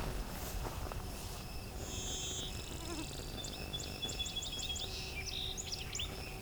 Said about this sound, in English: Alright, as our blue wing warbler's closer, I'm going to hit record. See if it can grab it.